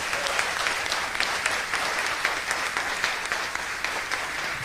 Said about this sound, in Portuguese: Que lindo isso, aplauda o Senhor Jesus.